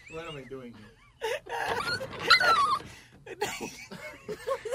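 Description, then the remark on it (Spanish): A dog named Huevín whimpers and cries in a series of short, high-pitched whining bursts, broken by scuffling, breathy noise in the middle. “Eso que acaban de escuchar fue el sonido de Huevín llorando.”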